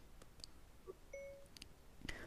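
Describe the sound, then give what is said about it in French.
A faint, short electronic ding from a phone as voice dictation starts, a single soft tone heard alone against quiet background hiss, with a couple of tiny clicks around it. “Donc, on a eu notre ding du début qui n'était pas tellement fort.”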